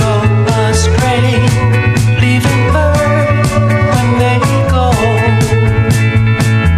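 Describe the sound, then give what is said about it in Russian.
The original recording of a 1960s soul-pop song, written for the male singer's voice, plays loud and full, a male voice singing over a steady drum beat, a stepping bass line and a bright, busy band arrangement. “Вот как звучал оригинал.”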